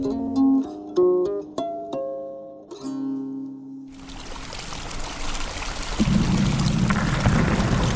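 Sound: heavy rain falling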